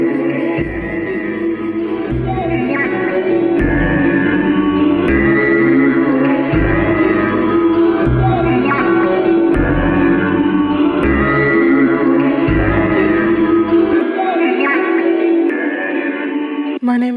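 A loud music track built on a looped sample, its dense phrase repeating in steady blocks with a booming bass pulse that drops out near the end, no vocals.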